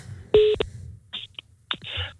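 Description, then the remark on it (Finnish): A phone number being dialed: a short keypad tone followed by a few quick, clicky bursts of handset noise, fairly clear, with no one talking. “No, mulla on täällä numero, niin laitetaan, laitetaan mennä.”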